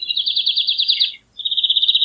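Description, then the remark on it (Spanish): A European goldfinch sings two bright, rapid twittering trills, one longer and one shorter, separated by a brief pause. The high, clear notes stand alone without voices. “Y luego viene el jilguero. Jilguero real.”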